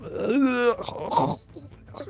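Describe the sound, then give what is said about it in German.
A voice imitates a raspy, gasping groan: a strained, drawn-out vocal moan followed by breathy, rattling rasps, fairly loud, lasting about two seconds with no clear words. “und ihr hört so ein Röcheln.”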